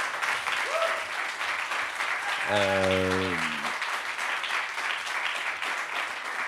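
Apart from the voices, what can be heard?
audience applause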